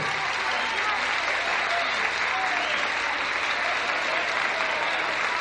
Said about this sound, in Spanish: Y la aplaudimos fuerte, fuerte, fuerte.